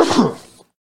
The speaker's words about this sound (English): that was a sneeze, ladies and gentlemen, so I excuse myself.